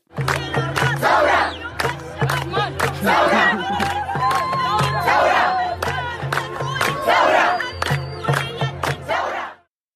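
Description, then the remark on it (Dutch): A large protest crowd in Sudan chants 'thawra', Arabic for revolution, in unison, loud, with repeated shouted phrases over a steady pounding drum-like beat, almost rap-like in cadence. “het is eh, Taura, roepen ze. Dat betekent revolutie in het Arabisch.”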